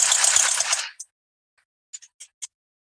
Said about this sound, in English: So that's actually me blowing the raspberry with an airplane engine on top of it.